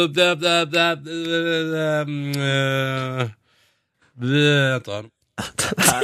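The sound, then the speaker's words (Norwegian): Drawn-out baby-like grunting hums from a man in the middle of thinking about who are the year's live artists for P3 Gull, one long wavering groan and a shorter second one, with brief choppy vocal bursts around them, like someone stalling while thinking. “Og hør på disse babylydene han kommer med da.”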